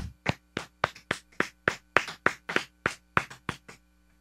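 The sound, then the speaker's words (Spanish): A short burst of applause for Lin-Manuel Miranda: about thirteen crisp, evenly spaced hand claps at a brisk steady rhythm, like a single person clapping, with no talking over it. “Y entonces el trabajo que se ha hecho ahora, este, y, está haciendo una cosa, así que bueno, un aplauso a lin Manuel Miranda.”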